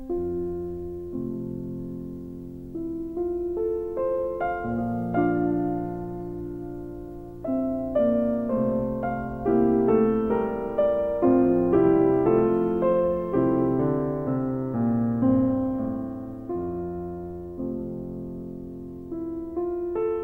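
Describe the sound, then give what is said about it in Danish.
A gentle instrumental piece plays on its own, with sustained tones and a flowing melody over steady harmonies, moderately loud and continuous throughout with no voices. “Øhm, så han øh, skriver den her komposition, og drømmer sig ligesom tilbage til, da alt var godt.”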